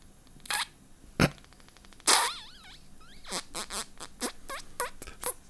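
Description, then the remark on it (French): Several small kissing smacks given on the forehead, with squeaky, chirping lip sounds toward the end, a quick irregular series of soft pops and squeaks with no talking. “Alors, je vais, te faire un petit bisou.”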